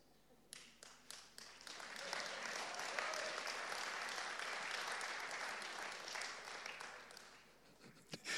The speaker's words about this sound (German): Sie hat den Applaus ja mal gerade in Schwung gebracht. Sehr, sehr gut.